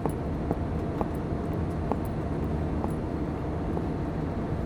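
A steady, low engine hum fills the cabin of Mr. Durov's personal plane before takeoff, constant, with a few faint clicks scattered through it and no one talking.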